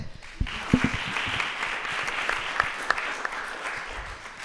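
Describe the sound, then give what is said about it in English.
An audience claps steadily for a speaker at the end of a talk, a dense wash of many hands that holds fairly even in loudness from start to finish, with a few sharper individual claps standing out. “Now you can you. applaud.”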